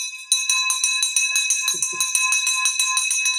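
A victory bell clangs rapidly and steadily, rung to celebrate a sale, about four bright metallic strikes per second with ringing overtones, loud for several seconds, with a brief low murmur partway through.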